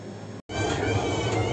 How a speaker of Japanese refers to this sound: ちょっと後ろうるさいかもしれないんですけど今まさに電車に乗っててまたそれは後で説明させてもらいますえっと朝から TOEIC を受けに行ってきてその後電車に乗って今デリーからゴアに向かっているところです